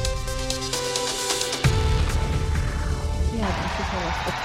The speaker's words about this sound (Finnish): Kuulkaa, miten yleisö ulvoo täällä. 7000 katsojaa. Jokainen paikka on nyt tänään täynnä. Yhtään ainoa istuinta ei ole vapaana täällä. Kaikki selostamotkin, kaikki ovat täynnä.